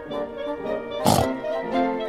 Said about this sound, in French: Arrête-toi grogna le cochon en cherchant à le saisir.